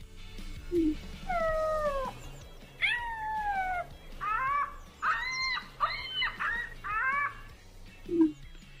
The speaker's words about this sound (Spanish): Ponle, por favor, mi querido Elías Dedos de Seda, el audio de la avestruz.